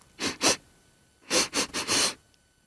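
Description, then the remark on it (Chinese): A person sniffs sharply through the nose as a little field mouse sniffing over and over, two quick sniffs, a short pause, then a rapid run of four more, breathy and hissy with no talking. “可突然，斯纳皮抬起他的鼻子，他停住了抽泣，猛吸着鼻子，”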